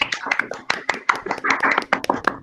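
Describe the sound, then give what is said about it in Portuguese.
A short burst of applause celebrating a show's one-year anniversary special: several pairs of hands clapping quickly and unevenly, fairly loud, with a faint murmur of voices mixed in. “Vamos aplaudir. Todos aqui, aplausos, aplausos, aplausos.”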